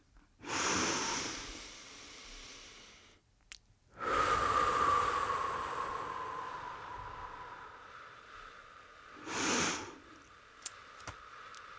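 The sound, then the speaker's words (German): A slow, deep inhale on a count of four, a short breath hold, then a long, drawn-out exhale twice as long with a faint whistling tone, followed by another brief breath, with no talking; a breathing exercise. “halten kurz die Luft an und atmen dann doppelt so lang wieder aus.”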